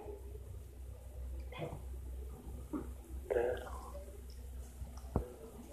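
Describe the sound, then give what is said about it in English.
A few sparse, irregular taps, like knocking, sound in a quiet room over a steady low hum, ending with one sharper click, while soft murmuring voices drift in between. “Knock? Tapping, tapping. In the room.”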